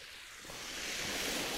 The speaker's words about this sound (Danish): Men lige nu er der et eller andet over det med, at, at bølgeskulpen ligesom suser op og slår ned igen lige så stille.